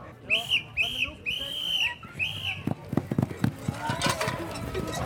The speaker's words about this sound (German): Es rennen alle an nach diesem Pfiff.